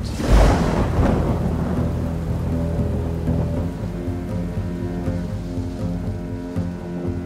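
A loud thunderclap bursts at the start, then heavy rain hisses steadily as a low rumbling storm drone continues underneath, during a terrible night storm with rain and wind. No one speaks.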